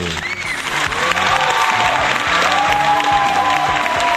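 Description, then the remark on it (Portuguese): A large crowd applauds steadily at the Festa da Uva (grape festival), a dense, continuous wash of clapping with some cheering and whistles mixed in, loud and sustained throughout without any speech. “pessoal todo aplaudindo aqui na festa da uva, hein?”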